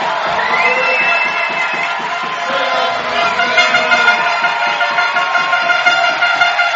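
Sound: stadium crowd cheering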